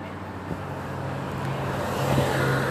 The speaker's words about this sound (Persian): چرا ماشین میاد امروز